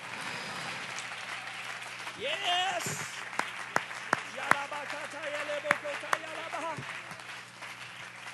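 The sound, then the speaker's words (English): A church audience claps its hands steadily during worship, a dense wash of applause with a few sharper, louder claps standing out, while a man's voice speaks and exclaims over it. “Clap your hands unto the Lord.”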